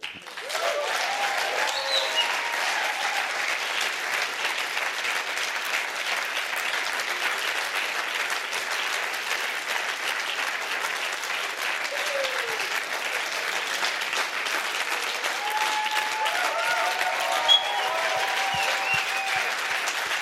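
A large crowd applauds steadily for about twenty seconds, a dense, even wash of clapping that never fades, with a few faint voices and whoops rising above it now and then.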